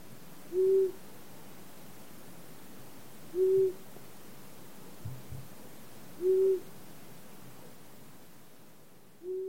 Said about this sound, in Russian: А крик ушастой совы, он немножечко похож, но он скорее такой у-у-у-у-у.